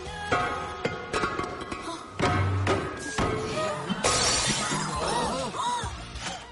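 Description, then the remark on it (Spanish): A vase is smashed by the maid of honour at a wedding with a loud crash, followed by several seconds of shards and fragments clattering and tinkling as they scatter, with no voices. “Hay que romper el jarrón. La dama de honor lo rompe.”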